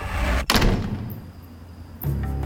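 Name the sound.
front door slamming shut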